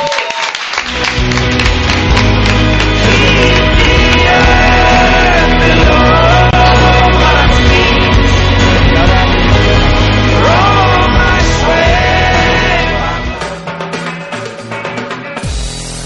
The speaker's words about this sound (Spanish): Pues eh, esto es todo y muchas gracias por acompañarnos esta tarde. Te despedimos con este fuerte aplauso. Muchas gracias.